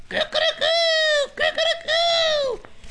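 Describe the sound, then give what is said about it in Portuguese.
A person imitates a carijó hen clucking: two loud calls, each opening with a few quick choppy syllables and then stretching into a long, drawn-out nasal note. “O ovo que eu achei veio da galinha que a galinha faz faz e também o ovo, e também o carijó que faz”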